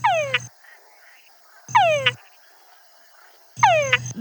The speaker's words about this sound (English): Yeah, so I work with um, a species of frog that has uh, a very very clear, strong, distinctive call to attract females. Can we hear that? Can you play something for us? It basically translates to where the party at.